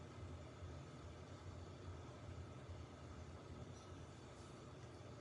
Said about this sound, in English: He didn't pack the rug. My washing machine is walking. You know what I'm talking about? The rug's in there. And I'm pretty sure he did not evenly put the rug around the thing. So it was doing that thing where it just twirls itself and walks itself